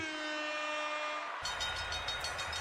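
A sustained, steady train horn blast gives way to the loud rumble of a passing train, with a quick rhythmic clatter of wheels on track. No one speaks.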